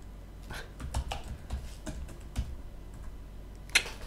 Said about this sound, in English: I keep I don't know what I'm typing wrong.